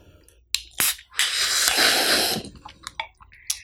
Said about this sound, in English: Where you pop the can and drink at the same time. Yeah, you get maximum exposure exposure Something of, of the air there. yeah because there's yeah, no carbonation yeah it sounded like air right there